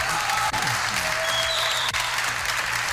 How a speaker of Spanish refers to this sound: Muchísimas gracias, colegas diputados. Se levantan los diputados, empiezan a aplaudir, como siempre.